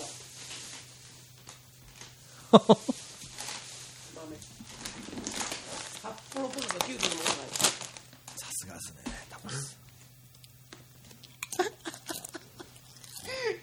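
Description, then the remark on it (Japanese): A potato chip bag crinkles and chips crunch in scattered, crackly bursts, with one sharp snap early on, while people talk quietly over the rustling. “ポテチある”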